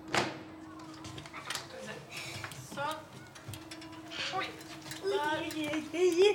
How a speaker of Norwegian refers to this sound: Han åpner døra fra leiligheta og med litt løfting og styring får han sykkelen ned trappa og ut ytterdøra.